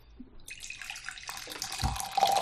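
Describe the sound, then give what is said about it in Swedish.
Tea is poured into a cup, a steady splashing trickle that starts after a brief pause, grows fuller and continues to the end, with no voices. “oh, vad är det jag hör? Oh, oh. Det där låter som... Te.”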